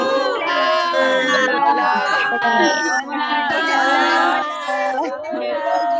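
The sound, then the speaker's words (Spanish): A crowd of audience members on a live online call unmuting and shouting hello all at once, loud, layered pitches piling up in a chaotic burst that carries steadily for several seconds. “A la cuenta de 1, 2, 3, todo el mundo se quita su mute y griten hola para que nos escuchen la gente del podcast.”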